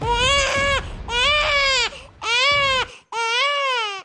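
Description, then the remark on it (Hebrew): A newborn baby cries in four loud, sustained wails, each a second or so long, separated by short breathy gaps, alone with no talking. The baby is John Winston Lennon, born at the maternity hospital on Oxford Street in central Liverpool on 9 October 1940 at 18:30. “אז נולד בבית היולדות שברחוב אוקספורג במרכז העיר, תינוק שאימו תקרא לו ג'ון ווינסטון לנון.”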